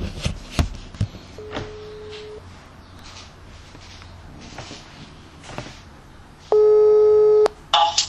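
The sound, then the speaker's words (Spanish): A loud, steady electronic telephone tone blares for about a second after background clatter, following an earlier faint beep, with a short chirp right after it ends, as a call is cut off in order to call back. “corte, corte, corte y llama. Está, está, llamo de vuelta.”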